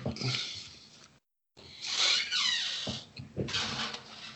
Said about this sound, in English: Creaky door.